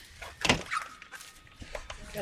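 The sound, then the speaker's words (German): A door swings shut with one solid thud near the start as people go into an escape room, followed by a brief creak and faint shuffling. “Machen wir noch die Tür.”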